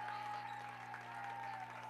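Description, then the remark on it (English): Steady applause from St. Cecilia basketball fans fills an echoing gym with one minute left in a championship game, the Hawkettes leading 35-23; a continuous dense clatter of clapping at moderate loudness with a faint tonal hum underneath. “St. Cecilia fans starting to applaud.”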